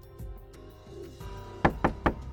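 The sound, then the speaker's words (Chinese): Three quick, sharp knocks rap on the main door from outside in fast succession after a stretch of low background rumble, sounding urgent and insistent. “大门外传来了一阵急促的敲门声”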